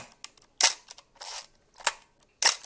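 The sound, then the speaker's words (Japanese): Four crisp, metallic camera shutter releases fire at uneven intervals on a Nikon FM3A film camera, its titanium shutter curtain snapping across, with faint mechanical clicks and winding noises between them and no talking. “あのー、これはですね、チタンのシャッター膜を使ってですね、あの、チタンのシャッター膜ってすごく耐久性があって軽くて、精度も出ていいんですけど、あの、やっぱり音がちょっとね、ほら、金属的な音があるんですよね。”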